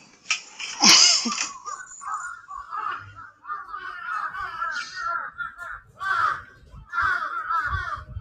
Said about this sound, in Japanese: じゃあこのカラスの大合唱で終えたいと思います。